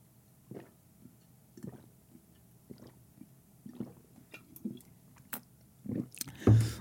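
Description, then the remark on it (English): Quiet wet mouth sounds of someone sipping a caffeinated drink and swallowing, repeating every second or so, ending with a louder bump of handling noise. No talking. “Let me take out these bad boys and have a sip of my caffeine.”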